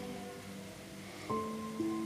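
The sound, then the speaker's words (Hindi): A steady hiss of rain falls throughout, even, while soft sustained musical tones swell in partway through and layer over the downpour. No one speaks. “मालूम है ये बारिश जब होती है ना तो मुझे बहुत डर सा लगता है पता नहीं क्यों मेरा इससे रिश्ता है मैं जब जब रोती हूँ ना बारिश ज़रूर होती है और आज भी इस बारिश ने मुझे कुछ याद दिला दिया है”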